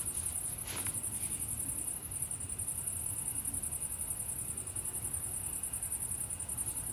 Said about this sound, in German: Ich höre nur noch die Umgehungsstraße und die Grillen zirpen.